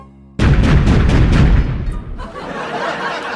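A loud string of firecrackers bursts into a rapid, crackling volley of sharp pops for about a second, then trails off into a softer rumbling hiss. No one speaks.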